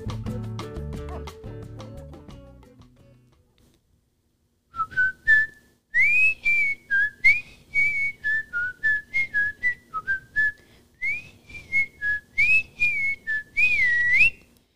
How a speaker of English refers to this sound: That was Andy Griffith. You know that show from a long time ago? It's not easy to whistle that. I was kind of struggling just then as embarrassing as it is.